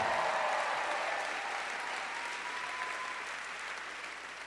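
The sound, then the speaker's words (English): A church crowd applauds steadily in praise of Jesus Christ, a dense wash of many hands clapping at once that holds strong and then eases slightly over several seconds, with no talking on top. “Everybody, clap your hands and praise Jesus Christ, the worthy one.”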